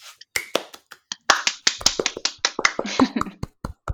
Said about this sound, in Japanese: 盛大な拍手が今、巻き起こって 耳をつんざくような盛大な拍手が。